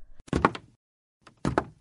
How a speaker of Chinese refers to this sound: 鬼屋的门又大又沉，我们花了吃奶的劲儿才把门推开。